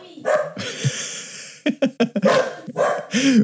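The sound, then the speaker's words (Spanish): A dog, Pimienta Matapaco, barks at a window in a house in a quick, agitated run of sharp barks and yips, a few clipped ones bunched together midway, with no talking over it. “Salió pimienta matapaco ahí a ladrar la ventana.”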